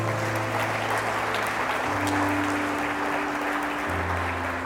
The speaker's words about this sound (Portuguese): E se você crê nessa oração, aplauda o Senhor com alegria.